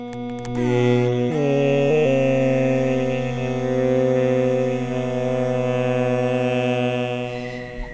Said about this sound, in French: Donc au début, on va entendre simplement le moustique seul. Ensuite, la musique Drupad va commencer. Et on va bien voir que le moustique, vous allez entendre que, euh, le moustique suit vraiment euh, le chant.